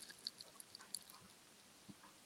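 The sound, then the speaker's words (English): Quiet sipping of Castle Light beer: a few soft, wet mouth clicks and small slurps, with a faint gulp near the end, no talking. “Listen, Henrik saying I haven't taken a sip yet. Here we go, Henrik.”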